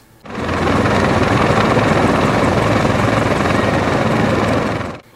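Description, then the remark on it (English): A helicopter flies overhead, its rotor blades thumping in a fast, steady chop over a dense engine whine. The sound starts abruptly, holds at full loudness for about five seconds, then cuts off. “Indeed, in the very same area in June, a man had to be rescued with a helicopter after trying to climb up from the waterfall pools to the trail and getting stuck.”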